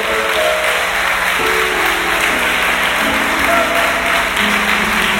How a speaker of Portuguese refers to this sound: Um forte aplauso para Jesus essa manhã.